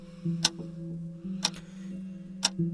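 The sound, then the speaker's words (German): A kitchen clock that had been broken for months starts up again and ticks three times, sharp and evenly spaced about a second apart, over a steady low hum with no voices. “Sie tickt. Ich habe jetzt große Angst.”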